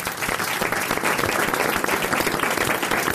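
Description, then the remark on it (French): An audience applauds Marc-Antoine Lebray steadily, a dense wash of many hands clapping at an even loudness for about three seconds, with no voices standing out. “On applaudit Marc-Antoine Lebray qu'on retrouve dans quelques minutes dans le RTL.”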